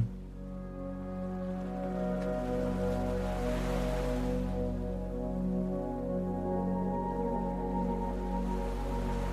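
Ocean waves swell and wash in a steady, soft surge, peaking midway, layered over a sustained, humming tonal drone that holds throughout.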